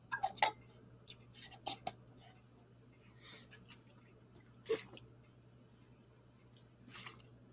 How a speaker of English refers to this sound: Wait, wait, wait. Shake it. Show the booze again.